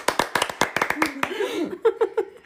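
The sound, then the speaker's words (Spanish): A quick run of about eight or nine sharp hand claps in a fast, even rhythm, fading out as voices and light laughter take over. “Aplausos.”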